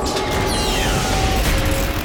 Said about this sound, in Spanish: La puerta se cerró, dejando la bóveda completamente sellada.